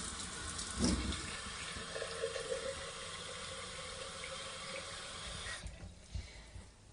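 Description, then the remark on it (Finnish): Tap water runs steadily as sprouts are rinsed under it, a broad rushing hiss with brief splashes and knocks early on, before the flow cuts off near the end. “Sitten huuhtastaan taas nämä.”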